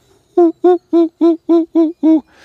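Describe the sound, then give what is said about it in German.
A European fire-bellied toad (lowland fire-bellied toad) calls seven times in quick succession, each note a short, soft, mellow hoot at a steady even rhythm, heard clearly with no voices. “Und in den Niederungen, in den Donauauen, im Prater gibt es die Rotbauchunke oder Tieflandunke. Die kann man auch an ihren guten Geräuschen, die machen wirklich”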